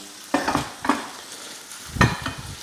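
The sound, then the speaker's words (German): Food is tossed in a heavy frying pan three times with a forceful motion, each toss a sharp scraping whoosh over a steady background sizzle, fairly loud, with no one talking. “ja, aber da braucht man viel Gottvertrauen in die richtige Pfanne. Ja? Weil das ist ja wirklich kräftig, die Bewegung.”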